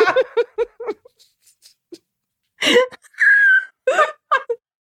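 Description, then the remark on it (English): Breathy human laughter in quick pulses, then a sustained high-pitched whistling tone, made by the person as they laugh, rises through a later burst of laughing before trailing off into more giggles. “Something has happened since COVID where I have a horrible whistle when I laugh sometimes.”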